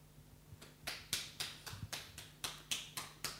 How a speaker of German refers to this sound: Es gibt einen einzelnen Beifall, aber vielleicht von Ihnen einen schüchternen. Ja, es darf auch mehr Beifall gespendet werden.